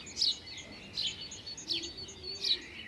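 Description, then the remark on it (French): A male house sparrow settled on a branch in Montmartre, Paris, in spring during the nesting season, chirps repeatedly, four bright, sharp calls spaced at a steady rhythm, clear over a soft background hiss. “sapiaille, mais là, euh, c'est un mâle qui est bien installé sur sa branche. Donc là, on est sur le moineau de Paris, hein.”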